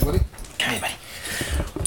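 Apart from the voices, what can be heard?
dog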